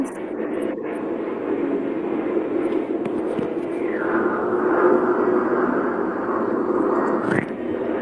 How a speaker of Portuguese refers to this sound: Não consegui te escutar esse final que você falou agora. Deu um... Eu acho que o avião passou aqui. O avião ah, tá. passou aqui.